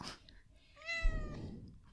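A female cat gives a single meow, a drawn-out call that slides downward in pitch and lasts about half a second, with no talking.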